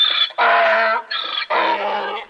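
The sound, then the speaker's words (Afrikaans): A donkey brays loudly, two full hee-haw cycles alternating a thin high wheeze with a harsh, rasping honk, with no other sounds. “Daar is 'n koei, mm. 'n donkie, mm.”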